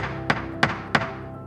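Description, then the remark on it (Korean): Three evenly spaced knocks on a wooden door as Zeus and Hermes knock on house doors, each a hollow, solid thunk with a brief ring-out, clear over a faint steady background hum, with no voices. “이렇게 제우스와 헤르메스는 계속해서 문을 두드렸다.”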